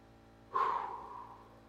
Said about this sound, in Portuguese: para no momento, aonde você estiver, aonde você estiver, fecha os olhos e começa a fazer uma respiração dessa mesma forma que eu vou fazer aqui, ó. Respira fundo.